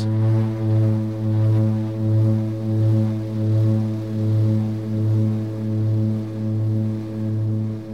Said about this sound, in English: when you hear a propeller start spinning very quickly, um, you know, as a plane might be starting to take off, you ever notice that the sound of that starts changing and you start hearing almost what sounds like a drony note?